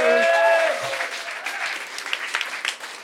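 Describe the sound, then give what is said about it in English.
An audience breaks into applause for all the game contestants, a dense, steady patter of many hands clapping for about three seconds, briefly overlapped at the start by a sustained tonal sound like a cheer. “Oh, let's hear it for all the contestants.”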